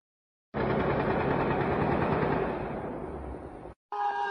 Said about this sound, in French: Euh, mais on entend une, longue rafale de Kalachnikov